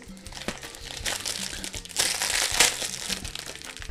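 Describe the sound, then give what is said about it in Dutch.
Plastic stroopwafel packaging crinkles and crackles as a stroopwafel is pulled out, with a louder burst of rustling midway and no voices. “Pak ik een stroopwafel.”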